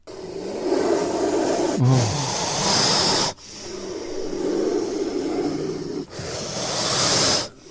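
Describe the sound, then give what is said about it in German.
A cobra hisses in three long, loud, breathy bursts, each lasting a couple of seconds with brief gaps between; a voice briefly exclaims once. “Eine Kobra. Ja, ist eine Kobra.”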